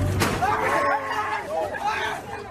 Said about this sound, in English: But messages like this were quickly drowned out by the noise of a rowdy crowd.